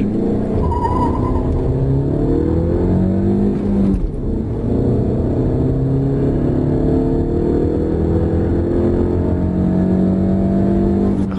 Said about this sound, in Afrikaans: vrywillige masjien, die 127 kW 2,4 liter viersilinder petrol wat die voorwiele aandryf, maar net 225 Nm wringkrag teen 'n hoë 4000 omwentelinge per minuut.